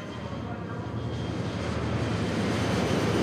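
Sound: airplane engine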